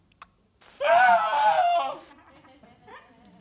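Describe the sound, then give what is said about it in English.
A single loud, shrill human scream, recorded by a news crew in 1998, lasting just over a second, harsh and strained, trailing off into quieter murmuring sounds; a brief faint tap comes just before it. “This is the captured scream”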